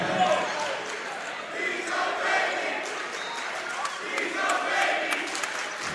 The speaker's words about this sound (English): The cheer is something to the effect of he's a baby.